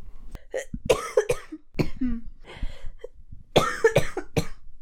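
A string of harsh, wet coughs comes in quick repeated bursts, several fits strung together close to the microphone, with rasping throat sounds between them and no talking.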